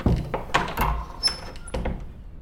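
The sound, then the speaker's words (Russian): A front door is unlocked, then an inner door propped shut with a stick is opened: a series of wooden clunks and rattling handling noises, with a brief high squeak partway through, and no voices. “Она отперла входную дверь, затем открыла припертую палкой внутреннюю, вошла.”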